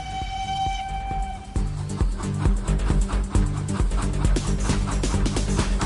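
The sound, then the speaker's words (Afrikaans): Tini the steam train sounds a steady, high whistle for about a second and a half, then chugs along its iron track in a loud, rhythmic run of chuffs and wheel clacks on the rails. “Tini is 'n stoomtrein op sy eysterspoor.”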